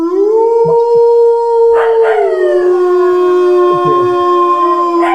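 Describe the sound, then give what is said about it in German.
A sustained, loud wolf howl, played as a 'Spoilerwolf' sound effect, holding a steady mid pitch with rich harmonics, rising slightly then sliding gently downward over several seconds, with no talking. “ja, muss ich dann jetzt den Spoilerwolf anmachen und du hörst dann weg oder was passiert, wenn ich den Spoilerwolf anmache?”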